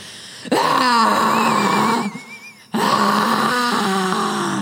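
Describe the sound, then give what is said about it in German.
A person vocally imitates vomiting with two loud, strained retching bursts, a gurgling, groaning heave, a short pause, then another rough, drawn-out gagging surge. “Warte, lass mich demonstrieren.”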